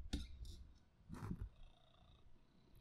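cat purring

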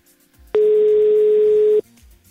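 telephone ringing tone

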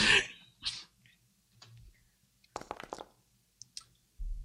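rolling dice

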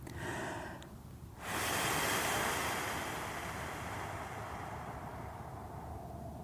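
long slow exhale

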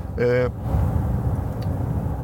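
car driving

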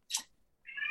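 cat meowing

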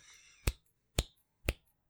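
finger snap

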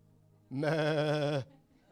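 sheep bleating

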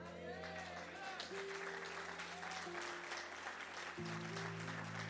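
audience applauding

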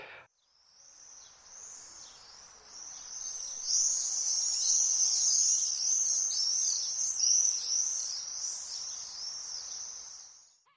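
common swift screaming calls

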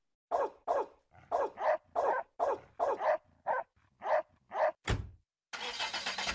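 car driving past

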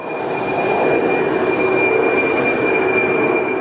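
airliner taking off

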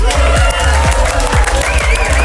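applause

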